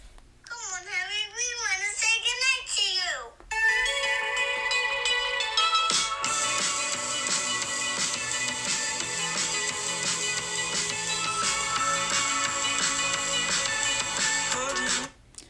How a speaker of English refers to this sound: So let's let's let's listen to the song for the people that haven't listened to it.